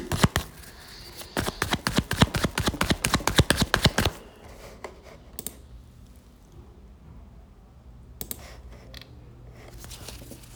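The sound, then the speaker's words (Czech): A deck of tarot cards is shuffled for a tarot reading in a quick burst of rapid papery flicks for a few seconds, followed by a few faint, scattered taps of cards being handled. “Já už se dívám na vaše fotky, míchám u toho karty.”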